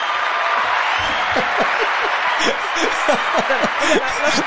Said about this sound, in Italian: Aspetta, devo fare una pausa qua perché questo merita un applauso, ferma.